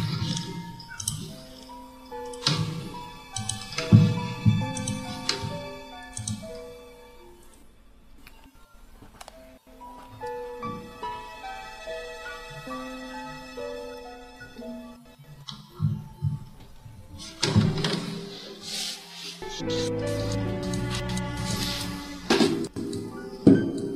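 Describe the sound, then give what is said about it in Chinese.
Rapid clicking of keyboard typing, irregular taps in bursts, picked up by a participant's open microphone during a singing performance, mixed under the singer's steady backing track with sustained tones; the clicks come and go, loudest near the start and end. “在打字啊！”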